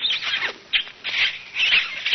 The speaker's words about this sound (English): As I opened the door, they were still kissing.